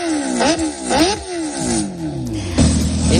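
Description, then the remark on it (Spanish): A large-displacement motorcycle engine revs up and drops back repeatedly, its pitch climbing and falling in loud bursts about every half second, then settling into a lower throaty rumble. “Esta que escuchamos es una moto de gran cilindrada, pero no son las únicas que hay en nuestras carreteras.”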